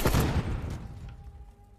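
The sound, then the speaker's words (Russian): A sudden, loud explosion sound effect bursts out at once, then fades into a long, low rumbling tail, with a faint steady hum lingering beneath. No one speaks. “Какая добрая мина, кстати. Угу. Как взрывается совсем.”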